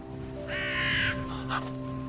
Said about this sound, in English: There she is. My crow flies down and speaks to me.